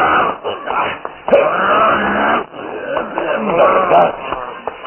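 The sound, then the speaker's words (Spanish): A voice imitates the furious, wolf-like growling of a man transformed into a werewolf as he attacks, in rough, sustained, loud snarls, with a brief break partway through before the growling surges again. “Y sus cadeos se convierten en gruñidos furiosos.”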